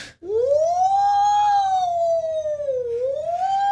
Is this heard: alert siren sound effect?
yes